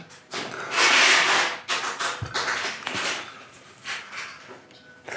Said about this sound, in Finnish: Sehän kun, kun, tuolla kuulokkeella, niin se on tosi, tosi voimakas niin sieltä teippaillaan jotain pakkauksia.